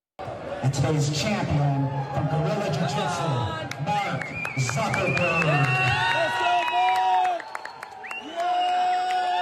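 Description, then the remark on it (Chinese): A crowd cheers loudly and steadily for about nine seconds, with overlapping shouts, whoops and clapping, as Meta CEO Mark Zuckerberg steps onto the podium at a Brazilian jiu-jitsu championship in the US. Rising voices stand out over a dense wash of noise. “肆意喊出扎克伯格的名字，男子在欢呼声中站上领奖台。”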